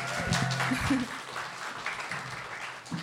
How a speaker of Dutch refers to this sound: Yes, graag een applaus